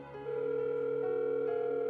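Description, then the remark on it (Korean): A telephone call rings out unanswered, a steady electronic tone humming on without a break, clear, with no voices at all; repeated calls to a home phone and a mobile phone go unanswered. “아무리 전화를 해도 집 전화도 핸드폰도 받지 않는다.”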